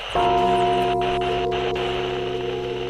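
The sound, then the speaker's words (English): A gong is struck once, loud, then rings on steadily with a rich, shimmering metallic hum that barely fades. No voices accompany it. “Let's bang that gong.”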